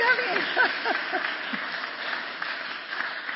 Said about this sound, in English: Yay! You can clap or something.